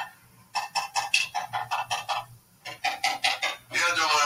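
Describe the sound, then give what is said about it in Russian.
A rapid series of sharp hammer knocks in two bursts as someone hammers, the blows coming quickly and evenly, followed by a brief rougher scraping noise at the end. “Верно, это стучат молотком, и я узнаю звук молотка моего друга Степы.”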